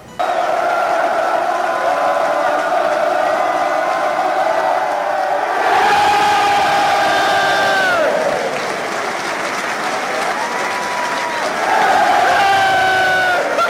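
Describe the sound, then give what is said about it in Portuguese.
A football crowd's loud, sustained roar fills the whole stretch as a little goalscorer runs to celebrate with the fans, cheering and chanting voices swelling in waves, surging sharply around the middle and again near the end, with no pauses. “A torcida motivou e ele foi pra galera.”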